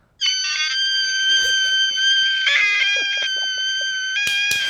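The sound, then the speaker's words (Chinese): A very high-pitched, dolphin-like voice, called a 'dolphin sound', holds one shrill, loud tone for over four seconds, wavering slightly and squeaking near the end, with faint background noises underneath and no talking. “这里叫做海豚音啦，吼，啊，细汉的时阵我就开始咧学这个米茶好啊，啊，这嘛是烧水咧滚的声音”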